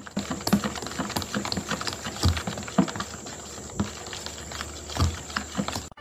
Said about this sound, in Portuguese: E agora vamos mexer, colocando água boricado Tem que ir colocando aos poucos, né?